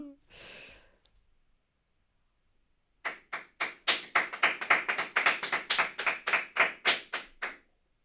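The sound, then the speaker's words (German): Two people clap together, a quick, uneven burst of roughly twenty sharp, loud claps lasting several seconds, after a brief breathy sigh and a moment of silence. “wenn man nicht weiß, was passiert ist und was passieren konnte und dann einfach zwei Menschen vor sie sieht, die anfängt zu klatschen.”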